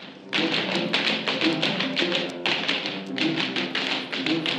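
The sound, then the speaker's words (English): Rapid tap dancing, a steady stream of bright, crisp taps in quick rhythmic bursts with brief pauses, fairly loud and with no voices. “Pretty fancy footwork there, boys.”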